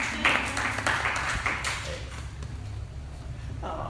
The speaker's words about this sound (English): applause for Michael Arena.